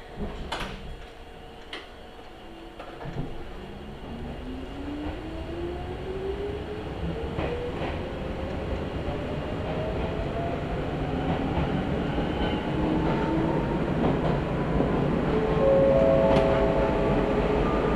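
A train on the Izuhakone Railway Daiyuzan Line in Japan, departing Iidaoka Station toward Anabe, runs steadily along the rails, its low rumble building as it gathers speed, with rising motor whine tones and occasional sharp clicks and clacks from the track.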